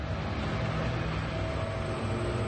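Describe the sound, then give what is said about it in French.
A car engine rumbles steadily with a low, droning hum and broad road noise, holding at an even level throughout, with no voices; it is the driver's car arriving. “D'ailleurs, j'entends la voiture de mon chauffeur qui arrive, je crois Ah, les voilà”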